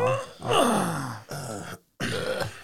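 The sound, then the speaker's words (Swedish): An old man lets out a drawn-out, strained groan that slides downward in pitch, followed by shorter effortful grunts, a brief silence, then another labored exhale, fairly loud. “Gubbstönet känner jag igen.”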